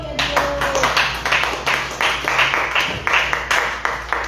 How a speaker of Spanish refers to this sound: ¿Quién vive, hermanos? Palmas a este hermano.